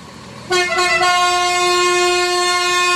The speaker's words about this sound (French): Ah, ça, c'est la trompe TGV, ça. C'est la quoi? Ça, c'est la trompe TGV.